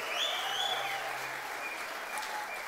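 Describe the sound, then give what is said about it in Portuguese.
Steady audience applause for the group from Vila Olímpia, a dense wash of many hands clapping at an even level throughout, with no clear voices standing out. “Vamos aplaudir o pessoal da Vila Olímpia.”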